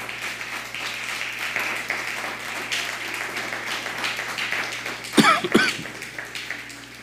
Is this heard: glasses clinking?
no